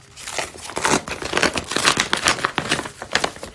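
Paper rustles and crinkles steadily as a Sagawa Express paper delivery bag is torn open, with dense irregular crackling bursts throughout and no talking.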